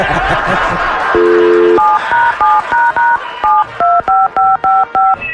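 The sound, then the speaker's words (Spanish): A phone number being dialed to call a friend: a brief steady tone, then a quick run of about ten evenly spaced two-pitch touch-tone beeps, loud and crisp, with faint laughter and chatter at the start. “Vamos a marcarle.”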